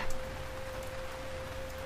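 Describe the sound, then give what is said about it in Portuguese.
Heavy torrential rain pours down on a person's head in a dense, steady hiss with no let-up, accompanied by a faint constant tone underneath; no voices are heard. “Uma chuva torrencial cai sobre sua cabeça.”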